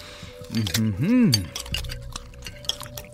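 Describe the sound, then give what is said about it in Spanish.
Light, scattered clinks of cutlery against dishes as men eat a lavish meal with liquor and sweets, irregular and soft, while a voice murmurs an appreciative hum with a rising and falling pitch over them. “Lentamente, los platillos, licores, dulces y el resto de las ofrendas fueron devorados para dar paso a pilas de platos sucios y copas usadas.”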